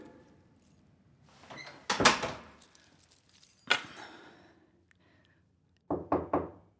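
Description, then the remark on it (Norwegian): A bunch of keys jangles in a few short metallic bursts as they are handed over, with a pause between them and a quick triple clink at the end, with no one speaking. “Ja, her har du nøklene.”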